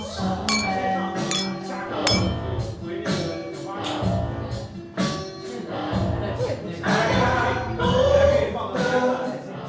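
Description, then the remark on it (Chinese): Several bright glass clinks ring out at irregular moments over a busy, murmuring background of voices and clatter as glasses, one holding a whiskey sour, are touched together in a toast in a bar. “来，干杯。”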